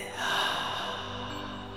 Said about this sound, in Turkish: Burnundan sesli bir nefes alıp ağzından güçlü bir nefes verirse